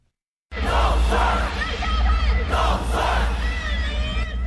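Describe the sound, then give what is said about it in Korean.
A large crowd of supporters cheers and shouts loudly and continuously after a brief silence at a campaign rally in Taipei, Taiwan, as Democratic Progressive Party presidential candidate Lai Ching-te appears before the presidential election, with surging waves of yelling voices over a steady low rumble, dense throughout. “지지자들의 환호 속에 수도 타이베이 유세 현장에 대만 독립 성향의 집권 여당 민진당 라이칭더 후보가 등장했습니다.”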